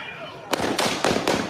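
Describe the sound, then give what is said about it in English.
Four sharp, loud gunshots crack out in quick, roughly even succession, each a brief explosive burst with a ringing tail, over a steady murmur of background noise. “Someone else fires three shots.”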